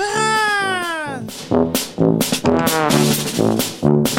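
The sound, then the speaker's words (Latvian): A child's high, wailing cry opens with a long sliding scream, then breaks into repeated sobbing bursts, loud, with no other talk. “Iedomājieties, ka bērni nu pat iekļēdzās.”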